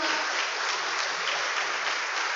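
Steady applause from a crowd, a dense, even wash of many hands clapping at once without pause, fairly loud and with no voices standing out.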